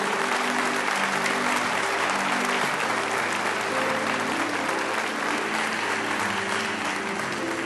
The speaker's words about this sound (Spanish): Dale un aplauso fuerte a nuestro Señor.